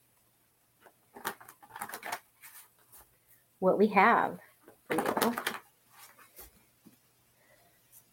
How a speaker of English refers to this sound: When I shuffle these cards, they kind of sound like water. You know, like when water just kind of splashes.